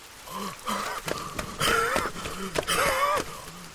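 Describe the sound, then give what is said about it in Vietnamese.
Labored, wheezing breaths of a person short of breath, rasping in and out in a steady rhythm, with whistling tones on each strained inhale, loud, and no talking. “… đã thấy khó thở và ho khủ khụ.”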